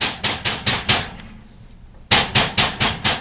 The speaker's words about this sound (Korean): 그러던 어느 날 밤 누군가 제 자취방 두드리는 소리가 들렸습니다.